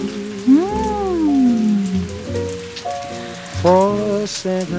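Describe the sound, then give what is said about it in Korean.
Steady rain patters throughout as a continuous soft hiss at a coffee shop, heard beneath jazz music with gliding, wavering melodic tones and a low bass line. “음악이 흐르고 빗소리가 더해지고 커피가 거드는 저만의 시간 좋았습니다.”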